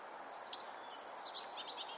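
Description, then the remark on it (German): A European robin sings a short run of thin, high warbling notes, faint, over a steady hiss of background noise with no voices. “Das sagt mir auch das Rotkehlchen hier.”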